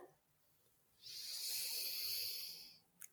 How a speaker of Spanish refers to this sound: No terminamos con respiración, hagamos una cortita. ¿Listo? Ok. Ok. Respiremos. Inhala.